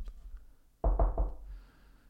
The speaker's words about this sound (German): Du, du, du kommst und, und klopfst bei mir zu Hause.